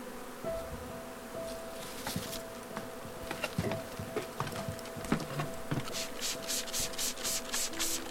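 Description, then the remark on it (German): A dense swarm of honeybees, clustered on a branch, buzzes steadily with a sustained drone, joined by scraping and rustling noises as the bees are shaken from the branch into a cardboard box, and a series of quick bursts near the end. No one speaks. “Halte den Pappkarton unter die Schwarmtraube und schüttle kräftig am Ast, sodass die Bienen in den Karton fallen.”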